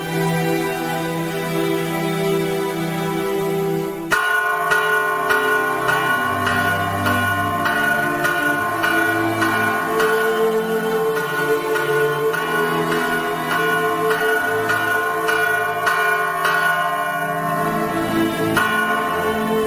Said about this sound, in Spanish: Sí, toquemos las campanas para que todos vengan a arrodillarse ante este milagro.